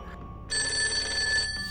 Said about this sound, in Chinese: 少爷，您的电话。 果然，再过了不到十分钟，绑匪的电话真的打来了。